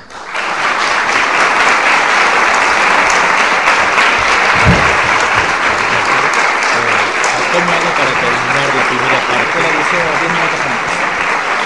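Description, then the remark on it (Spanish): Sustained audience applause fills the whole stretch, a dense, loud wash of many hands clapping at once that holds steady throughout, with faint voices murmuring beneath it. “Así que por todo esto yo también le pido a ustedes un fuerte aplauso para toda la semana.”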